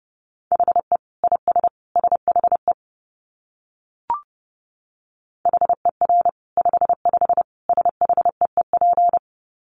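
Fast Morse code at 30 words per minute, sent as a single steady, mid-pitched beep, clipped into quick dots and dashes in tight groups, broken by a brief pause with a small click before the keying resumes.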